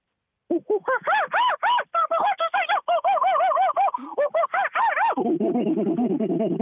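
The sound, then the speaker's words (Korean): A person imitates a wild monkey getting excited at the sight of a gift voucher, with rapid bursts of loud, high, rising-and-falling hoots and shrieks, then shifts into lower, faster chattering for the final couple of seconds. “야생 원숭이가 아, 상품권을 보고 흥분하는 소리.”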